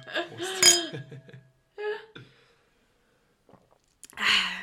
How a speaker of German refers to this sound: Wollen wir erstmal anstoßen? Ja, wir können, aber, aber sicher. Aber sicher. So, heute wieder mit Bier und Wein.